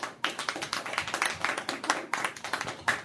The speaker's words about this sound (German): Weiter so und Beifall.